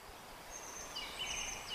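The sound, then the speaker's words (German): Faint, high birdsong drifts through a quiet outdoor hush in a forest, a few thin whistling calls rising and falling over soft background noise, with no voices. “Hörst du die Geräusche des Waldes, das Singen der Vögel?”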